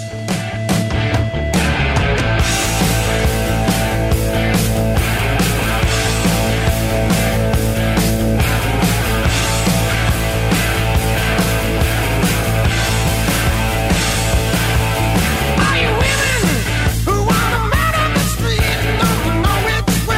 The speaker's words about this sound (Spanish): Más conocido como, oh mirá, el soundtrack de Iron Man. Yo me vuelvo loco cada vez que lo escucho, me, es como que me sube todo. Es un tema.